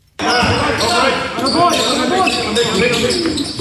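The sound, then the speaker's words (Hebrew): Basketballs bounce repeatedly on a hard court during a practice of the Hapoel Galil Elyon Premier League team in Kfar Blum, Israel, amid a busy wash of practice noise, with sneaker squeaks and indistinct voices mixed in throughout. “בצל הרקטות, הכטב"מים ורעשי התותחים בכפר בלום ממשיכים לשחק כדורסל.”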